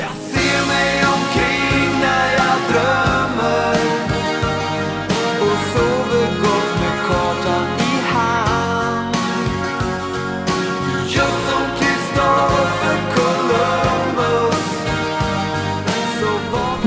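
A loud, full-band pop song chorus plays steadily for the whole stretch, with bright layered instruments, a driving beat and sustained melodic lines, and no talking over it.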